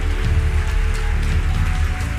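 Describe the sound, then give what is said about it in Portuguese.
Steady, dense clapping from a crowd, a continuous patter of many hands at an even loudness with no voices heard over it. “Aproveita as palmas e vem.”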